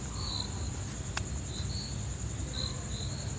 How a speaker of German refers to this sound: wie es eben halt abends war, als, als die Sonne unterging in diesem äh, Wäldchen äh, bei diesem Camp, hört man ja doch einige Geräusche, Vögel, Grillen zirpen. Das war richtig romantisch.